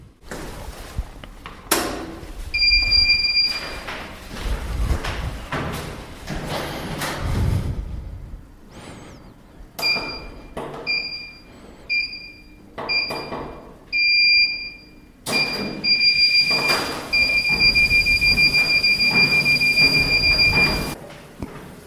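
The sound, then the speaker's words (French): A treadmill whirs and clunks into motion while its shrill electronic beeps sound, first a few short ones, then a rapid series and finally a long sustained tone, loud. “je suis donc sur un tapis de course et je vais vous lire la fiche Wikipédia de la course à pied”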